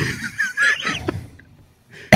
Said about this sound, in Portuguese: Além de eu estar com essa tosse de velho ainda.